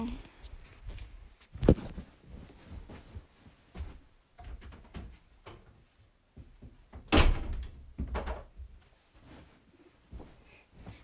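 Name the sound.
door being closed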